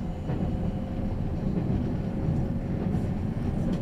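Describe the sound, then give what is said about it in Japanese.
A limited express train, the Azusa 30 bound for Shinjuku with its next stop at Okaya, runs along the rails with a steady, heavy low rumble and faint rhythmic clatter, holding an even loudness throughout with no voices. “列車は特急あずさ30新宿行きです次は岡谷に停車いたします”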